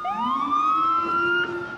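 A police car siren, police arriving after a shooting at the Dakota, wails loudly, its tone sweeping upward and then holding a steady high pitch, with no voices present.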